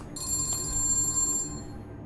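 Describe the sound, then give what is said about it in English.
A telephone in a film rings once with a call to a retired Chinese immigrant living in Florida, a bright, trilling electronic burst lasting just over a second before cutting off, heard clearly over a faint low background hum with no voices. “he's a retired Chinese immigrant living in Florida, and then he gets a phone call.”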